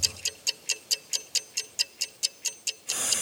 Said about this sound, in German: Hier, ich habe sogar, ich habe sogar eine Eieruhr. So, da stellen wir jetzt acht Minuten ein.